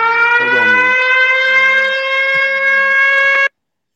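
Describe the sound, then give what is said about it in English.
A loud, steady electronic alarm blares with a sustained siren-like tone for about three and a half seconds, then cuts off abruptly, with faint background sounds underneath. “That was my alarm going off.”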